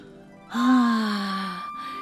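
A boy, Peter Pan, sitting and crying, lets out a single loud, drawn-out wailing cry that slides downward in pitch over about a second, alone with no talking.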